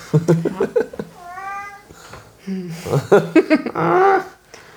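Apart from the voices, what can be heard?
cat meowing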